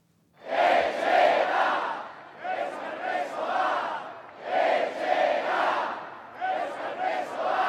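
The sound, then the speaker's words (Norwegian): An enormous crowd in the square in Bayonne, with Basque flags waving and arms raised showing peace signs toward the stage, cheers and chants loudly in repeated rhythmic swells, each surge of many voices lasting about two seconds before dipping and rising again, with no single clear speaker. “De baskiske flaggene vaier i vinden, og den enorme menneskemengden på torget i Bayonne holde armene i været og vise fredssymboler mot scenen.”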